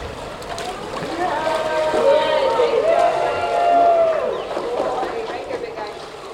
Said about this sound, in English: Cheers erupted as Bjorn splashed around his new pool.